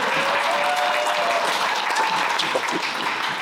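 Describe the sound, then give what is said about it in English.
A crowd applauds steadily, many hands clapping in a dense, continuous wash of sound that stays loud and even throughout, with no talking over it. “You can help him by clapping.”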